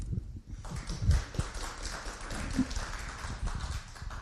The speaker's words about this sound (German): Schön, dass Sie da sind. Vielleicht ein Applaus.